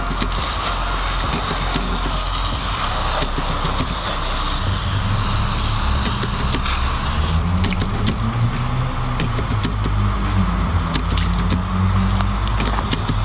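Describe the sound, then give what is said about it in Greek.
Steady running water splashes and hisses continuously as it is poured under pressure through an air filter to rinse out fine particles and mud, until the water coming out the back runs clean, with a low rumbling tone shifting underneath in the second half. No one speaks. “ρίχνουμε νερό μέχρι να δούμε ότι το νερό που βγαίνει από πίσω είναι καθαρό.”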